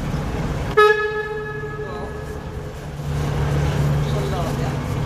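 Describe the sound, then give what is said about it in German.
A boat's foghorn gives one loud, sudden blast that rings out in a long, echoing tail inside a canal tunnel, over a steady low engine rumble. “Ja, einfach mal unseren Nebelhorn betätigt.”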